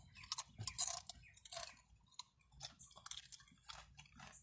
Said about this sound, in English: my slow delivery, crunching and munching, eating the feet of the earth, the beans, beautiful fruit, you know.